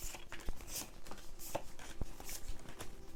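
drawing tarot cards

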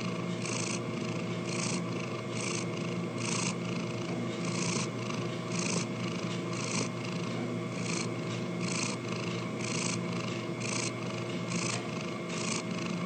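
cat purring

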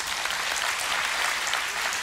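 audience applause

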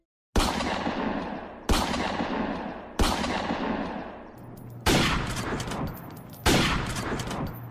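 gunfire

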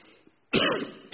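man coughing

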